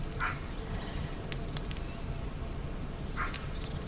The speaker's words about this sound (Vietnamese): bạn nghe thấy tiếng chim hót líu lo